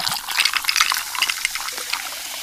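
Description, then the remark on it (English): A steady crackling fizz of carbonated bubbles as Pepsi Zero Sugar is opened and poured over ice, with dense tiny pops and hisses continuing throughout and no voices. “Hear all those deliciously fizzy Pepsi bubbles?”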